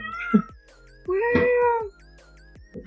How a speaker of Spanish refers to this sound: a ah, chingado un gato?